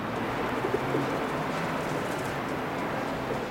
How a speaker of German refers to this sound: Zwischen Kabelträgern und niedriger, schmutzig weißer Decke brüten Tauben.